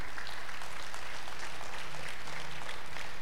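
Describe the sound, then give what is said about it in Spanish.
An audience applauds the Lord steadily, a dense wash of many hands clapping at once with no clear individual beats, sustained at moderate loudness for the whole few seconds. “¿Todavía le puedes dar un aplauso al Señor o ya no?”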